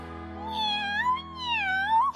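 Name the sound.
cat meowing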